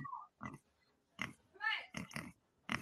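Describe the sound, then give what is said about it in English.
A person makes a string of odd, grunting animal-like noises, imitating a dog's strange sound: short snorting bursts and a warbling squeal, fairly loud, with brief pauses between. “Let me tell you what that dog sounded like. Weird.”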